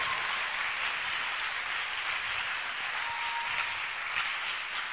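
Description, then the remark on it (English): An audience at a church service claps for God together in a steady, dense wash of applause that holds at an even level for several seconds, with no voices rising above it. “Clap for God. Clap for God. Clap for God.”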